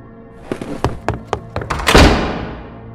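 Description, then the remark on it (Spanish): A few quick, hollow thuds lead into one loud, heavy door slam as the door shuts by itself, booming and then fading away in a long ringing tail. “Pero al llegar a la puerta, esta se cerró de golpe por sí sola.”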